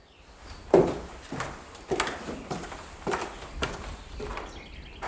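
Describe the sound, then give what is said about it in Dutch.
Footsteps climbing a staircase to the first floor of a bird hide overlooking lakes, about eight evenly spaced thuds with a wooden knock to each, the first one loudest, heard alone without talking. “En daarvoor eh, moet je een trap omhoog. Dat gaan we nu ook doen, zodat we een beter en een mooier uitzicht hebben over de plassen hier.”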